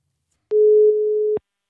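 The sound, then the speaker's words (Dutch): A telephone ringback tone while calling Sharon Gesthuizen: one steady, low-pitched electronic hum lasting just under a second, with soft clicks at its start and end, heard alone without any talking. “Even bellen met Sharon Gesthuizen.”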